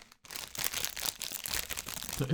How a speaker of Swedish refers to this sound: osäkert prasslande.